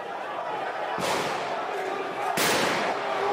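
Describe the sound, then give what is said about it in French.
Two sharp, loud gunshots ring out about a second and a half apart, each with a ringing echo, fired into the air by armed, masked men amid a dense crowd with voices, at a funeral for seven Palestinians in the Tulkarem refugee camp in the West Bank. “Des hommes armés et cagoulés tirent en l'air au milieu de la foule qui se ferait un chemin dans les rues étroites du camp de réfugiés”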